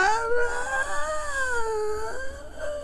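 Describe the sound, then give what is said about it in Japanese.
A voice mimics a one- or two-year-old baby crying for its mother, as in a hospital scene of a Godzilla film: a sustained high, wavering sob with sliding pitch lasting about three seconds, fairly loud, with no other talk. “ってこう泣くわけですよ”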